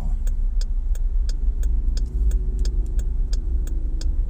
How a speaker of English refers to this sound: Jesus, traffic, man. I just can't jump out there like that. About 14 cars in this joint. I'm trying to wait for this, this cars to go across here.